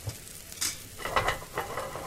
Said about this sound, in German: Kichererbsenmehl und Wasser und rühren. Bis so ein schlotziger Teig entsteht. Prise Salz, das haben die damals mit Meersalz gemacht und dann in Olivenöl anbraten.